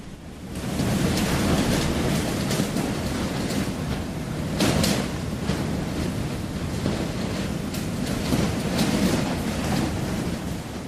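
A thunderstorm rages with steady, heavy rain and deep rumbling thunder, swelling in loud bursts around the middle and toward the end, with no voices present.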